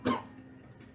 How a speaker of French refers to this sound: je tousse vraiment très fort